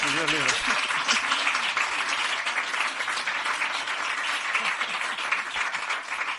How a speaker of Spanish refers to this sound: Aplaudir pero bajito cuando hable de la novela, ¿vale?